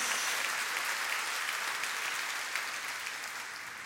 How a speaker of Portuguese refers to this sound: Quem está entendendo, dá uma salva de palmas ao Senhor.